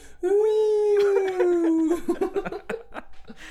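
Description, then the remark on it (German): A voice imitates a siren with a long, steady wailing tone that rises slightly and then sinks, lasting under two seconds, as other voices and laughter break in over its end. “Und jetzt droppst du den Namen von der Band und dann ging gleich mal die Sirenen los.”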